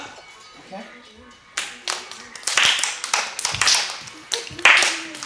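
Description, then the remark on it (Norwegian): A group of five- and six-year-old children standing in a ring on the floor, led by a breakdancer, clapping their hands together, loosely in rhythm, growing louder and more energetic after a quiet start, with faint voices in the background. “På gulvet får breakdanser Lars alle ungene med seg på å klappe.”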